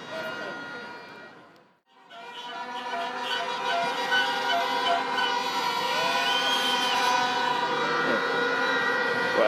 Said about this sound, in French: beaucoup comme vous pouvez l'entendre, beaucoup de klaxons.